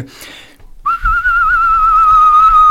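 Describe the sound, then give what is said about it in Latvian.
After a short pause, a loud whistle starts and holds one steady pitch to the end, wavering quickly up and down with a strong, fast vibrato. “viņam ir mazliet atšķirīga svilpošanas tehnika jo viņam ir ļoti stingrs svilpošanas vibrāto.”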